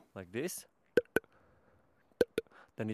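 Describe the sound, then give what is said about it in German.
A person imitates the opening of a capercaillie's courtship song with sharp mouth clicks in two spaced pairs, each pair a quick double knock, with brief voiced sounds before and after. “Sein Balzgesang beginnt so.”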